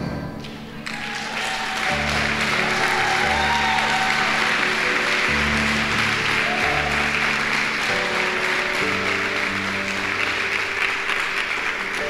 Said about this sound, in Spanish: Yo, yo creo que si hubiera más fe, el aplauso sería mejor.